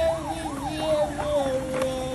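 A toy police and fire truck set's siren wails in quick, repeating up-and-down sweeps over a steady electronic tone, fairly loud, running throughout.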